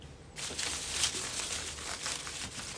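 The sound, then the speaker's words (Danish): Paper rustles and crinkles steadily for a couple of seconds with small irregular crackles as a slip of paper is drawn from among others in a draw. No one speaks. “han er en lidt genert type, så øh, I vil ikke øh, rigtig høre ham sige så meget, men I vil høre ham trække noget.”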